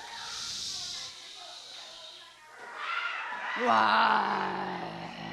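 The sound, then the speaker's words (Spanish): Half of a crowd makes a loud, sustained hissing that imitates torrential pouring rain, swelling and fading, with voices rising into whoops and cheers toward the end. “Lluvia, lluvia, lluvia torrencial.”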